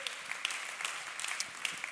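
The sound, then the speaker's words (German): Steady audience applause for friends and the whole church family, a dense wash of many hands clapping with sharp individual claps popping out irregularly, fairly loud and continuous throughout with no voices standing out. “Hey, und wie wär's mal, wenn wir hier aus den Symphonikern einfach mal all unseren Freunden und der ganzen Church Family einfach mal einen riesen, riesen Applaus geben.”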